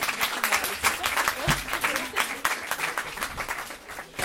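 An audience applauds steadily, many hands clapping in a dense, crackling wash that holds an even level throughout, with no voices standing out above it.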